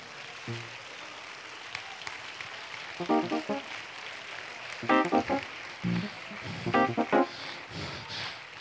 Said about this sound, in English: Clap your hands while you're moving. Clap your hands while you're moving. Come on, young man, you're over here. Come on, young ladies, you're over here. Keep clapping. That's all right. Keep clapping.